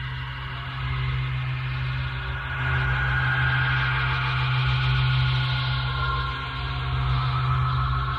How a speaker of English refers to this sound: The heartbeat of Laika, the dog, perfectly peaceful and seeming at rest.